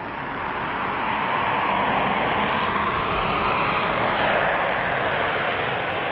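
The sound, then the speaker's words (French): A Concorde supersonic airliner taking off on its first flight, watched by 600 journalists around the runway: a loud, dense jet roar that fills the whole stretch at a steady, sustained level, with no voices over it. “Il y a 2282 jours que Concorde est prévu. Et maintenant, enfin, le premier vol ce premier vol que 600 journalistes attendent autour de la piste et que vous tous allez voir maintenant en direct.”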